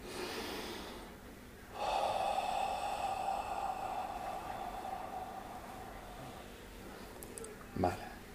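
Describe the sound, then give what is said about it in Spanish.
A slow, deep breath drawn in during a guided breathing exercise, a long airy rush lasting several seconds before fading, with a brief soft exhale or sniff near the end and no talking. “Seguimos respirando.”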